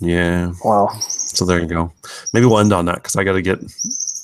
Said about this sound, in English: Yeah, I hear the morning birds chirping away. There, there they are.